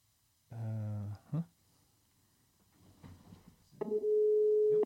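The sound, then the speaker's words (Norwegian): A telephone ringback tone sounds while a call is placed: a steady, fairly loud buzzing tone, a short blip, then after a pause another long sustained tone, heard clearly with no talking. “ringer. Du hører?”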